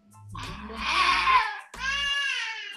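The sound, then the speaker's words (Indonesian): A young child cries and fusses loudly in two strained, wailing bursts, the second a sustained high-pitched whine after a brief catch of breath, wanting to cling to its mother, who is at a laptop. “sorry sorry sorry anak gue pengen nempel biasa nggak bisa ngeliat emaknya di laptop”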